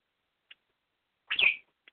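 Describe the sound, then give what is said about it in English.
Tony Bird, a pet bird, lets out one loud, harsh screech lasting only a moment, with a couple of tiny faint chirps before and after in otherwise quiet surroundings. “bird, shh, hush, hush, hush, sir. No screaming, please.”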